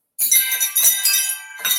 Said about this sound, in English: wind chimes.